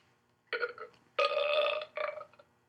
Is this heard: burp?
yes